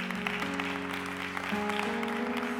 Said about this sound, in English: Well, come on and give God another hand clap of praise.